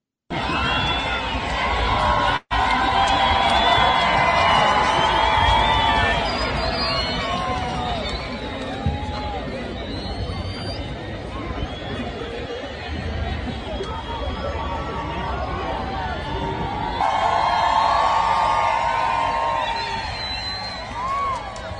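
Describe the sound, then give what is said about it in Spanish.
A large crowd of citizens boos loudly and without a break for about twenty seconds at the arrival of President Gustavo Petro. It is a dense roar of jeers and scattered shouts, with a brief cut early on and a swell near the end. “cuando llegó Gustavo Petro lo encendieron abucheo también, porque no lo querían ver allí.”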